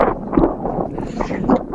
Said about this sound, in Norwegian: Nei, jeg er ute, ute og går, og der er det, er det da gaterydding eh, i eh, der jeg er, så jeg, beveger meg bort derifra nå.